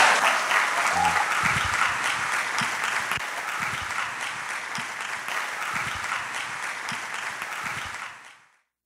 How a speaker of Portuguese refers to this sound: Você pode aplaudir o Senhor pela vida dele?